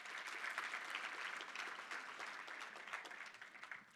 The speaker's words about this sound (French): Yeah, yeah, on peut applaudir ça, yeah.